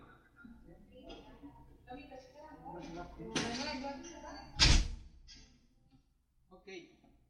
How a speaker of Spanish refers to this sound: perdón que estoy aquí en el centro de apoyo y aproveché este espacio para cerrar la puerta porque estaba metiendo un poco de ruido.